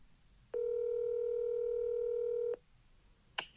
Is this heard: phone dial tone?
yes